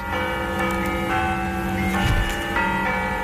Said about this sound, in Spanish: bueno, pues eh, sonido que volvemos a escuchar de esas campanadas.